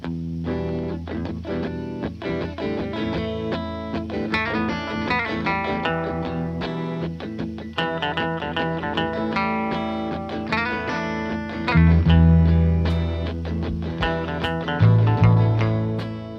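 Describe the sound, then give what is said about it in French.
Buzzy, distorted electric guitar amp tone from an All Black and Fender Deluxe amplifier pairing, recorded live in the studio: a steady low hum sits under ringing, fuzzy chords, with no voices, and the sound swells louder near the end. “On entend un buzz d'ampli créé par le duo All Black et Fender Deluxe”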